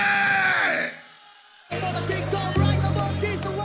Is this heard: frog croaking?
no